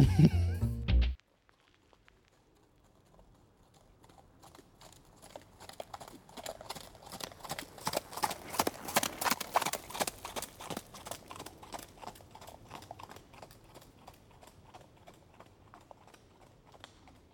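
Horse hooves clip-clop in a steady walking rhythm, starting faint and growing louder before easing off again, with no voices over them.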